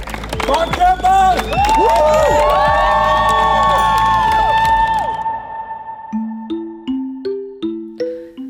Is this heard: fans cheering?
yes